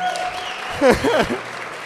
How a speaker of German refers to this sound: Wo, wobei ähm, Team Andorra auch wirklich ganz weit vorne ist. Ja, Team Andorra hat natürlich auch mal einen Applaus verdient hier